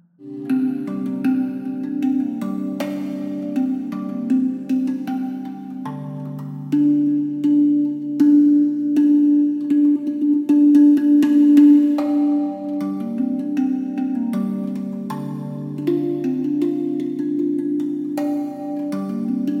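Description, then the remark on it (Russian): A hang drum plays slow, ringing metallic tones during a guided meditation, overlapping and sustaining into a soft continuous melodic wash with occasional gentle strikes, steady with no voices. “И если он отвлекается, возвращайте его обратно к звучанию ханга.”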